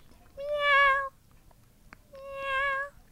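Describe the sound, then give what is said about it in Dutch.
A kitten in a large pit in the Amsterdamse Bos, Amsterdam, meows twice, each cry drawn out and high-pitched, with a short pause between them. The calls sound hollow against a quiet background. “Want er zit een poesje in die kuil.”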